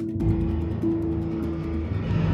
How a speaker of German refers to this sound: ist aber gar nicht das Klavier, sondern das Boot Monochord. auch schon der Einstieg, dieses, dieses Crescendo, mhm. das ist auch kein Piano gewesen, sondern es wurde Monochord.